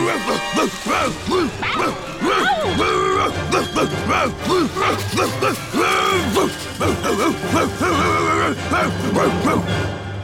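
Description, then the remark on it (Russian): A dog, Tishka, barks and yelps frantically in a loud, nonstop flurry for about ten seconds while attacking and biting a fox, like an aggressive scuffle, with a low steady hum running underneath. “Подходят они к друг другу поближе, как набросился пес на лиса и покусал так, что больше лиса не видать.”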